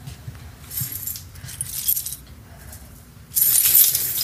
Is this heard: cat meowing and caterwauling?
no